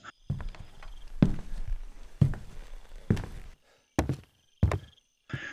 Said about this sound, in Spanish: Tres pasos y una pausa retumban desde el suelo. La madera cruje cada vez más cerca.